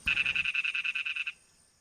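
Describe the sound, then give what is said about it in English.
A lesser toad, also called the Malayan dwarf toad (Ingerophrynus parvus), gives a rapid, pulsing trill of about a dozen evenly spaced buzzy notes, loud, lasting just over a second before cutting off into quiet. “This is the lesser toad or the Malayan dwarf toad. It is Ingerophrynus parvus.”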